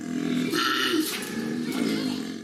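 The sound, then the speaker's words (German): A koala named Thunder from Down Under at Taronga Zoo in Sydney bellows loudly in a deep, rumbling, snoring-grunting drone with a burp-like quality, sustained throughout with rough pulsing and a few higher rasping bursts, no talking over it. “Jetzt entspannt das Tier weiter in einer Astgabel. Aber es kann wirklich laut sein.”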